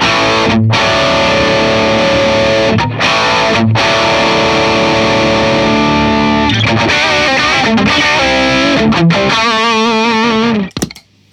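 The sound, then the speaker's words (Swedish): Heavily distorted electric guitar with the rhythm boost switched on, on the Strawberry sound with gain set to about eleven o'clock, plays loud sustained chords broken by short choppy stops, then wavering bent notes before cutting off abruptly. No voices. “Och så slår vi, slår vi på rhythm-boosten då.”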